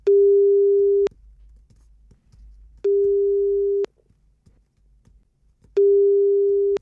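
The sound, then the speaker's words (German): A telephone line tone sounds three times before a phone call to a writer in Cuba, each a steady, clear beep about a second long, separated by short pauses, with only a faint low hum in between and no voices. “Peter B. Schumann konnte mit Angel Santiesteban telefonieren.”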